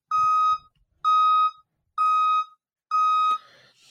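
Four loud, steady electronic beeps from a reversing truck's warning alarm, each about half a second long and evenly spaced, with a faint rattle of background noise under the last one.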